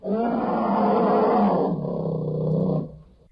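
A bear lets out a deep, sustained roar lasting nearly three seconds, loud, its growling tone dropping slightly before it trails off abruptly.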